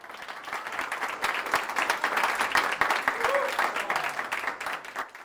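An audience applauds steadily, a dense patter of many hands clapping at a fairly even level for several seconds, with no voices standing out.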